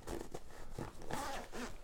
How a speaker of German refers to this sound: So, dann haben wir hier noch eine weitere Tasche. Wo ist denn hier der Reißverschluss? Ach, hier.